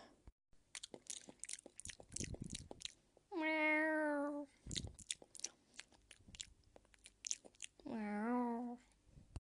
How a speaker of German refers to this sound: Papa, unsere Katze leckt an meinem Controller und sie geht nicht davon weg.